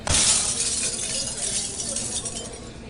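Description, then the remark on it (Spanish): Dishes crash and shatter in a restaurant, a burst of bright clattering and tinkling shards at the start that keeps rattling and settling at a steady loudness for a few seconds. “Eh, sí, porque los platos que se quebraron formaban parte del segundo grupo de activos, los relacionados con los equipos, la maquinaria, el mobiliario y los instrumentos.”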